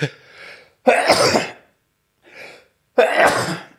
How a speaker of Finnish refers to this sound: nyt mä keskeytän aivastuksen, jos mä onnistun.